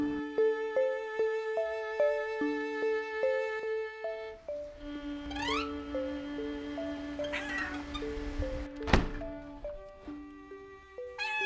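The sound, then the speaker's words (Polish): A cat meows a couple of times with rising, whiny cries, heard over a steady, stepping instrumental melody of sustained notes, with a sharp click near the end. “Dostąpiłem nawet zaszczytu pogłaskania twojej futrzanej głowy, a ty nadal marudzisz. No i weź tu człowieku zrozum kota.”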